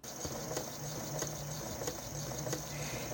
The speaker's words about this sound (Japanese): ミシンってええよな。